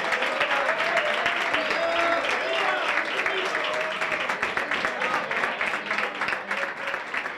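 Sustained audience applause for Diego and his team, a dense crackle of many hands clapping steadily and loudly for several seconds, with faint voices and cheers mixed into the crowd noise.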